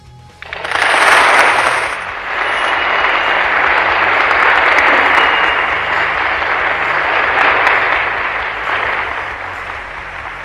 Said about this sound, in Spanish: Aplausos, por favor.